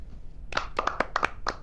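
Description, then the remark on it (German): A brief, uneven round of hand clapping, about eight sharp claps over one second from a few people, moderately loud, with no talking. “Seit wann haben wir das mit Klatschen eingeführt?”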